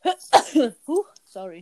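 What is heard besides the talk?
sneeze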